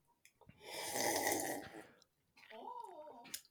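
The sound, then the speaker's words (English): A loud, drawn-out slurping sip of water, noisy for over a second, followed by a brief burst of voice. “I'm sure that I know, because I was like, I knew I had to take a big sip of water, and I didn't want to just leave an awkward silence while I took a sip.”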